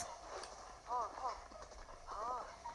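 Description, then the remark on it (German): Horse hooves clip-clop steadily across the Tabanta Bridge just after rain has stopped, in a quick, even rhythm, moderately loud, with brief voice-like tonal sounds rising over the hoofbeats now and then. “Ja, ich reite jetzt über die Tabanta-Brücke.”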